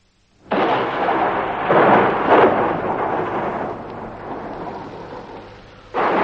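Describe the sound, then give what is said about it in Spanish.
A loud crack of thunder breaks in and rolls on in a heavy, swelling rumble with rain hissing underneath, fading slightly before another sharp burst strikes at the end. “Un relámpago, intensamente cegador, ilumina una foto clavada con unas chinchetas en la pared que está frente a la cama de él.”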